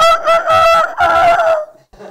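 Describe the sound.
A voice imitates a rooster crowing: a loud, drawn-out two-part cock-a-doodle-doo with a warbling pitch, trailing off into a brief quiet breath.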